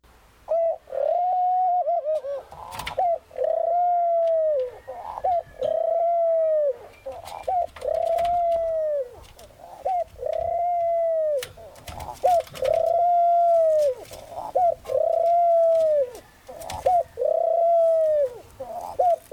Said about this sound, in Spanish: Pájaro, tweet.